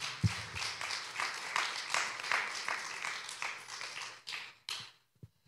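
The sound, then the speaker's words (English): A crowd at Grace Hill gives a round of applause: many hands clapping in a dense, steady patter at moderate volume, which thins out and stops, leaving a few last scattered claps. “Can, can, can we uh, give a round of applause to Evan?”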